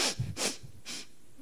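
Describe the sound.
A person imitates a crying boy's sniffling after salt water was put on his wound: three quick, breathy sniffs in an uneven rhythm, with no talking.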